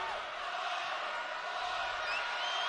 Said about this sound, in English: What a crowd tonight, too. The Rock is loud, of course. Place is packed.